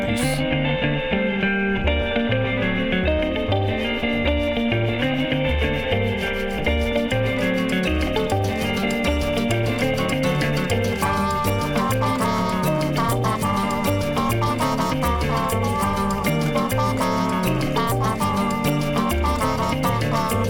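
A song plays over the radio, a full, steady band arrangement with a driving rhythmic beat and rich layered harmonies, holding a loud, even level throughout.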